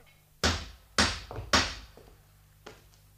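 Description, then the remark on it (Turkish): Three heavy, evenly paced knocks land on a wooden door, each ringing briefly, followed by a couple of softer thuds; no one speaks. “Kimdir o? Aç kapıyı.”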